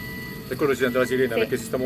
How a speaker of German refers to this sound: Deswegen hört man die Sirene, weil wir uns bewegen. Ah. Man spürt das eigentlich kaum, wie sich diese Fabrik bewegt, aber wenn man genau hinschaut, dann sieht man, wie das ganze Ding, auf dem man steht, so Zentimeter für Zentimeter vorwärts kriecht.